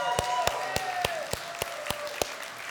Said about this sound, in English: Can we give him a round of applause and thank him?